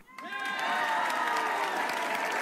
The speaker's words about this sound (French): Bravo à tous. On va vous applaudir.